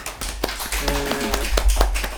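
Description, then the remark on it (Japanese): A short run of sharp hand claps at the opening of a radio show, roughly eight of them at an uneven pace, with a brief voiced sound in the middle of the sequence. “パチパチパチ。”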